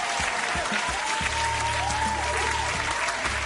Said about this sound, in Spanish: Eh, eh, a ver, no tengo aplausos. Ahí están mis aplausos.